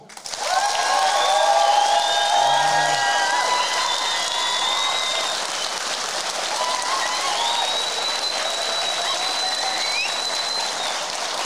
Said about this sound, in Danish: Ja, og det er jo jer, der får lov til at definere ved klap, hvad I gerne vil høre. Så hvis folk gerne vil høre min historie, så klapper I nu.